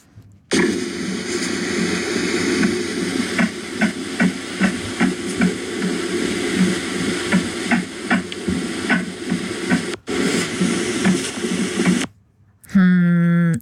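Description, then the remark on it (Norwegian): A fetal heartbeat of a baby in the womb on a doppler monitor, played on the Norwegian radio show P3 Morgen: fast, steady whooshing pulses thumping through a constant static hiss, fairly loud, briefly cutting out near the end. “Det er en baby i magen!”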